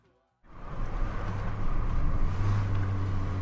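After a brief silence, a car engine starts up and settles into a steady rumble with road noise, as if heard from inside a moving vehicle.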